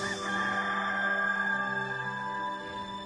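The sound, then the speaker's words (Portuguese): A rooster crows once in a long, loud, drawn-out call that holds steady for about three seconds before tapering off, with no voices present. “Pois eu lhe digo que hoje, antes do galo cantar, você me negará três vezes.”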